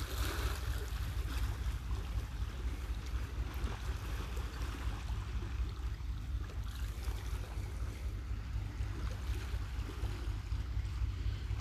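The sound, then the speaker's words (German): Soft water sloshes and laps steadily over a constant low rumble, like small waves against a boat hull, with a light breeze brushing the microphone. No voices are present. “Ich genieße es unheimlich, dieses sanfte Plätschern der Wellen zu hören.”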